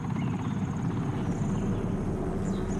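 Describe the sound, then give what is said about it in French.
A helicopter circles overhead, its rotor blades chopping in a fast, steady rhythm with a heavy low roar that stays loud and constant throughout, with no voices. “Et là, l'hélico est arrivé, a tourné au-dessus de moi,”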